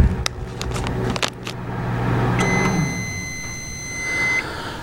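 A microwave oven cooking packaged rice hums low and steady, a few sharp clicks sound early on, then a single long, bright electronic beep rings out for about two seconds, clear, signalling it is done cooking.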